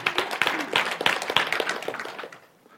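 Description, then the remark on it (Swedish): An audience applauds the English-speaking guests who have been interpreting, a dense patter of overlapping hand claps at moderate volume that fades out after a couple of seconds. “Fantastiskt, ska vi klappa om dem?”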